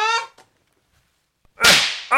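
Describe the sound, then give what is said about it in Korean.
A single sharp, loud swat from a fly swatter used to kill bugs at a mountain villa: a swishing slap that fades quickly after a pause, with a short voiced sound just before and another just after. “거기 파리채 좀 줘봐.”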